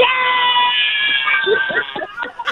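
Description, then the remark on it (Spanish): A woman imitates a cat meowing with a long, drawn-out, high-pitched wail, followed by a few shorter, choppy vocal yowls, loud. “pero sí, pero sí, pero sí habla como, pero sí habla como una gata, ¿eh?”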